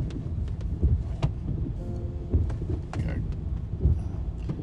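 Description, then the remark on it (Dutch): A heavy truck rumbles low and steady as it maneuvers in while a car waits for it, with engine drone, a brief tonal whine and scattered clunks over blustery wind noise. “Ik blijf hier wel even staan, zodat die vrachtwagen erin kan.”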